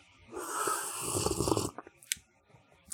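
A long, airy slurp of hot children's punch from a cup, loud, lasting over a second, then a few faint clicks and small mouth noises.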